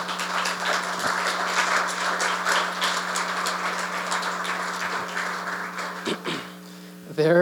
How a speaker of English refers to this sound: Can we just give a round of applause for all of our musicians this morning?